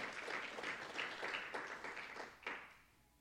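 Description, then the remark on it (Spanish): A church audience applauds the Holy Spirit together, a dense crackle of many hands clapping at a steady level before thinning out and fading toward the end. “Denle un aplauso al Espíritu Santo, los que han disfrutado del amor de Cristo.”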